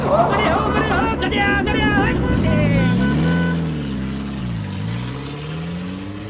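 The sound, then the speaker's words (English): A noisy Morris car drives past, its rough engine droning loudly as the pitch rises and then sags. Some indistinct voices are mixed in early on. “In contrast to the noisy Morris, Lakshmi and Prem sit in gloomy silence”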